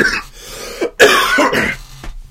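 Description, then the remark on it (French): A loud bout of coughing and throat clearing, several harsh rasping bursts in quick succession over about two seconds, with no talking. “une chance que je fume pas pour vrai.”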